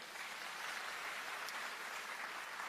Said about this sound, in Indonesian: Kita berikan tepuk tangan buat orang ini, oke.